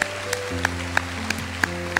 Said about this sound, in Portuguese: Dá glória a Deus bem forte, igreja. Um aplauso mais forte do que esse.